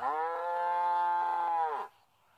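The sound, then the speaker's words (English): A single long, steady cow moo on a dairy farm, loud, holding its pitch for nearly two seconds before cutting off, followed by quiet background. “Many female animals such as cows and goats, produce milk for their young.”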